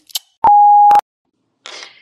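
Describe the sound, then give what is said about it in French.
A single steady electronic answering-machine beep, following a voicemail greeting, holds for about half a second, clear, with a faint click just before it and a short noisy rustle shortly after. “pas disponible pour le moment, mais laissez-moi un message et je vous rappellerai dans le plus bref délai. En cas d'urgence d'ordre amoureux ou podcastique, vous pouvez m'envoyer un mail”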